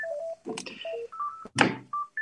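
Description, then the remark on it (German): A telephone rings with a string of short electronic beeping tones at shifting pitches, broken by a brief noisy burst midway, heard clear with no one talking. “Boah, jetzt klingt das Telefon.”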